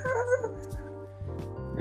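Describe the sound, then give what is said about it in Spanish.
A neighbour's dog barks a few times in short, irregular bursts, with a whiny, tonal edge, heard over a steady low hum in the background. “el puto vecino y su perro ladraba y ladraba.”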